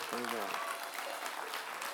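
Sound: audience round of applause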